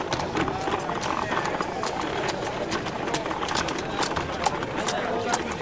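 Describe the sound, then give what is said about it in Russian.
Steady clip-clop of hooves, like a horse pulling a cart, sharp knocks repeating at an even walking pace over a continuous background hum and murmur. “Ну и сейчас осенью получается такая машина времени, того и гляди, проедет повозка конная.”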